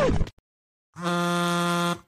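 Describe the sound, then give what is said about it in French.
A device notification alert from Query: a quick descending blip, a short pause, then a loud, steady buzzing tone that holds for about a second before cutting off. No one speaks. “Le soir tombait sur son salon quand, allongé dans un hamac au milieu de la pièce, Quinta vit sa sérénité perturbée par une notification de Query.”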